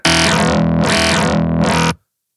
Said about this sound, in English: and we have a bass tone